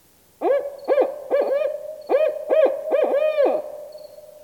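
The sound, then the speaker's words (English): An owl hoots in a rhythmic run of resonant, slightly wavering calls, grouped in quick clusters of two or three, clear against a quiet night background, with no talking. “I fell asleep repeating the pattern in my head as the owl hooted, hoping I would remember it well enough in the morning to look it up.”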